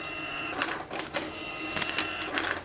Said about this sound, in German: Auf einem Touchscreen gibt er die Menge ein. Die Daten werden ans Amt übermittelt und auf einem Bon ausgedruckt.